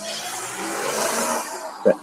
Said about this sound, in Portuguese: espera aí um bocadinho, que este, os carros estão aqui a passar, eu não tenho como.